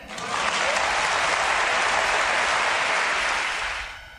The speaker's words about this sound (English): I now notice notice at the end of that clip how people clapped for what the father said, Tiger's father said, the human race. Huh? And, and this is a humanistic perspective. And so, and so the people cheered.